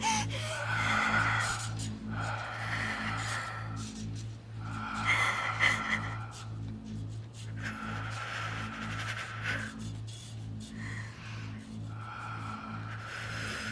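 Slow, deep breaths, about five or six long airy inhales and exhales in a steady rhythm, heard over a constant low droning hum.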